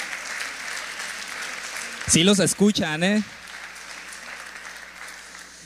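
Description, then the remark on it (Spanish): Steady church audience applause fills the whole clip at an even level, with a man's voice briefly speaking over the clapping midway before it continues on alone; the applause is for those following online and on Vive Radio 104.5 FM. “¿Por qué no le un aplauso a ellos que están conectados en línea?”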